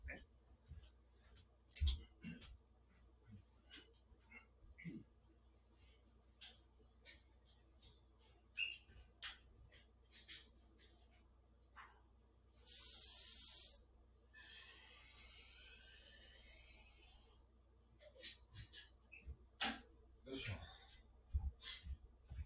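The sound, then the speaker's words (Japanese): Water is poured into a glass of shochu to make a shochu mizuwari, a steady splashing rush lasting a second or two, trailing off into a soft fizzing trickle, with scattered clinks and clicks around it. “ちょっと、焼酎をね、水で割ります。”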